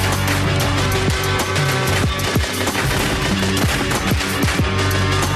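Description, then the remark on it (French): A dense, sustained burst of rapid gunfire, like a machine gun: a hail of bullets tearing into Little Horse's torso. Sharp repeated shots and booming impacts rattle loudly throughout, with no voices heard. “Encerclé puis lynché par le blanc Sa peau est écarlate mais cette fois-ci par le sang Et une pluie de balles lui défonce le torse Ainsi s'achève l'histoire de Little Horse”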